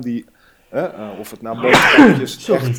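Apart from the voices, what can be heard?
human sneeze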